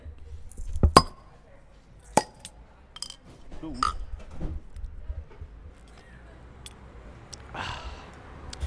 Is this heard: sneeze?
no